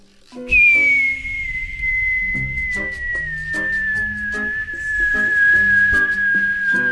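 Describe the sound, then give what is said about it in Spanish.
A loud, sustained whistling tone glides slowly downward in pitch for several seconds, the classic falling-object sound effect for a stone thrown into a hole, with busy tonal sounds murmuring underneath. “Va cayendo la piedra.”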